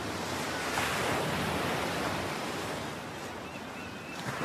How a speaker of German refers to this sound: Hör dir den Klang des Meeres an, während die Wellen über den Strand rollen und wieder zurück ins Meer kehren.